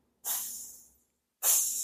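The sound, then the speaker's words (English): A voice imitates holy water sizzling as it hits the floor and the wall: two breathy hisses, the first longer and fading out, the second sharper and cut short. Both are fairly loud, separated by a brief silence. “you know, like it's sizzling when it hits the floor, when it hits the wall sizzling like it's fucking devil hot up in that bitch.”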